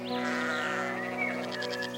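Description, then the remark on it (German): A sheep grazing among trees in sunshine gives one long, wavering bleat lasting about two seconds, fairly loud, with a slight tremble toward the end and no talking. “Im Sonnenschein weiden Schafe zwischen Bäumen.”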